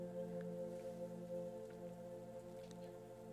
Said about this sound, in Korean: 이 비가 오는 소리는 제가 다뤄놓은 건데 distracting 거슬리는 건 아니겠죠? 이번 달 주제는 모두 다 비에 관련된 얘기니까 비가 오는 소리가 있다면 좋겠다고 생각해서 넣어봤어요.